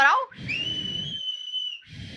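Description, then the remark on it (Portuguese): A brief vocal sound, then one long mouth whistle, rising quickly and then holding a steady high pitch for over a second against a low background rumble. “Eu não tenho meu apito aqui, hein?”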